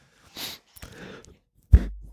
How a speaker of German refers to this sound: Ich muss leider husten. Ja, wir haben noch keine Räuspertaste hier.